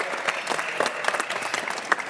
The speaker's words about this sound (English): From Team Lending, give them a round of applause.